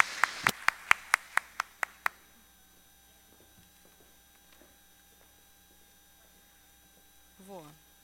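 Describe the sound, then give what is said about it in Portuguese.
A brief round of applause for women who support local commerce: about eight sharp, evenly spaced claps over two seconds, then near silence with a faint low hum and a short sliding sound near the end. “Então, vamos aplaudir essas mulheres maravilhosas que incentivam o nosso comércio local.”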